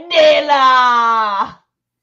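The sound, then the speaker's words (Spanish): A single long, loud anguished cry from a voice, held at a steady pitch for about a second and a half before breaking off into silence. “Pero un angustioso grito los sobresaltó.”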